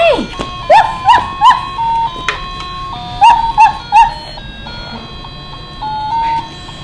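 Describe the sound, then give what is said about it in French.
Two sets of three short, high yapping barks, like a small dog or toy, ring out over a steady electronic jingle. A whiny whimper sounds at the start. “Un chien!”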